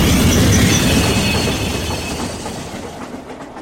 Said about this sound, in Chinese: 晃晃悠悠的坐了一天的火车，周德东和张梭到了西安。